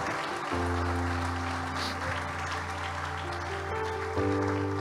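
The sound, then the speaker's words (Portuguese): An audience claps steadily and continuously for Jesus, a dense wash of applause over sustained keyboard chords that shift pitch near the end. “Aplauda Jesus.”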